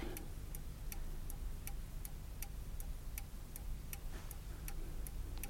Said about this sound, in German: Die alte Uhr da oben, über dem Kamin mit dem goldenen Gitter.